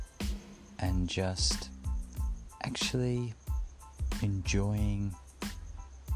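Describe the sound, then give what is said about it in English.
A steady, high-pitched chorus of crickets chirping continuously in the background outdoors, fairly late at night, faint beneath a person talking who is outside looking at the night sky. “and it is fairly late at night, and you can probably hear the crickets behind me because I am outside looking at the night sky”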